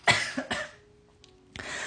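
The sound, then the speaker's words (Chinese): A couple of short, harsh coughs in quick succession from a dry throat, followed by a quiet pause with a faint hum, then a rough breathy burst like another cough or throat clearing. “待会咳咳嗽”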